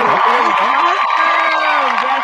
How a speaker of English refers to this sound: oh, need the clapping.